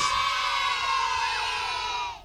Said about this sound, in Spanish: poner un aplauso